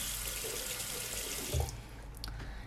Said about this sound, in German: So, jetzt ein bisschen so Wasser auf Zahnbürste.